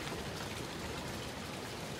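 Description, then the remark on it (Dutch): Steady, continuous splashing of fountain water at an entrance, a dense hiss of falling droplets that stays even and unbroken throughout, moderately loud, with no voices. “Er staat een fontein. Je hoort het water.”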